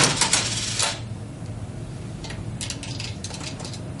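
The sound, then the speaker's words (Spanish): Metallic clinks of coins dropping into a capsule vending machine that dispenses small eggs with questions inside: a bright rattling burst at the start, then a series of lighter clicks and taps, fairly quiet, with no talking. “Te, a voy a dar seis monedas y tú le vas a, este, las vas a colocar, va a salir un huevito ahí, lo vas a abrir y ahí viene una pregunta.”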